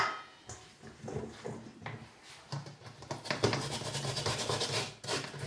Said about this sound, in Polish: Ja zaczynam tarcie ziemniaków zawsze od tych najmniejszych, kiedy jestem jeszcze tarciem najmniej zmęczona. E, najłatwiej jest mi przecierać małe ziemniaczki. ponieważ bez większego trudu jestem w stanie je utrzymać i należycie przetrzeć.